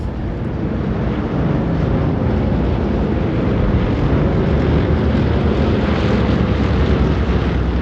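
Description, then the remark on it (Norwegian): A dense, unbroken low roar of enemy bomber planes coming in waves over a narrow valley and dropping their bomb loads, about 500 tonnes of bombs; deep rumbling that stays loud and steady throughout with no distinct pauses and no voices. “De kom jo i bølger over dalen og slapp bombelasten sin, og så forsvant de igjen.”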